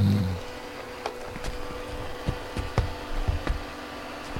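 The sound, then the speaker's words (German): A robot vacuum cleaner at home starts its scheduled cleaning program at 3 pm, whirring into operation with a steady low motor hum, punctuated by scattered clicks and light bumps as it moves, with no voices. “Verdammt, Staubsaugerprogramm.”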